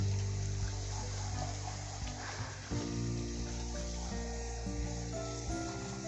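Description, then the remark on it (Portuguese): A faucet runs steadily into a sink while dishes, including small pots, a pan and a frying pan, are being washed, a continuous hissing, splashing rush with a low humming undertone and occasional small clinks, no voices. “Uh, deixa eu ver quanto que eu ainda tenho de louça, gente.”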